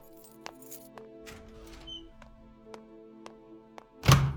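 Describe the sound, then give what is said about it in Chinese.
A door slams shut with one loud, heavy bang at the very end, after several seconds of faint, evenly spaced ticking clicks and a low hum. “带着趾高气扬的激动摔门而去”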